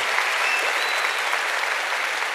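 Sustained audience applause, a dense, steady wash of many hands clapping at once, fairly loud and continuous for the whole stretch with no talking over it.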